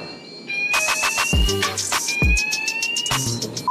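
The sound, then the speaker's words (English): A fire alarm on a boat, set off by sprayed air freshener, blares with a steady, piercing high tone, mixed with loud, clattering bursts and thuds, filling the whole short stretch without any speech. “Anyone know why the fire alarm went off?”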